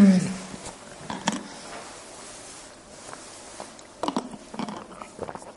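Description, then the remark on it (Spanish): Close, quiet mouth sounds of someone sipping water: soft wet slurps and swallows with small clicks, growing a little busier toward the end, with no talking. “Voy a ver un poquito de agua.”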